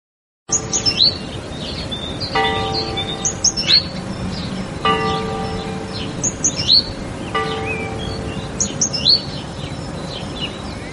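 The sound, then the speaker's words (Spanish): Small birds chirp and twitter busily throughout while a church bell tolls slowly and steadily, each strike ringing out and humming for a couple of seconds before the next, with no talking. Heard at home on Holy Thursday, 9 April 2020, during lockdown. “¿Qué es esto, Ana? Unas campanas, unos pajaritos.”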